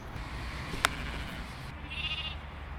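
Sheep bleat in a wavering, nasal tone over a steady background hiss, with a sharp click early on and a higher, thinner bleat near the end. No one speaks.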